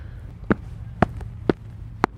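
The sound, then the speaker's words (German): Four evenly spaced footsteps land on a hollow metal Beach Manhole (BMH) cover that is not quite flat and dips slightly underfoot. Each step is a sharp clank with a short resonant ring and a slight echo, over a steady low hum with no talking. “wenn man da drauf tritt, merkt man auch, der ist nicht ganz flach. Da, da geht schon ein bisschen runter.”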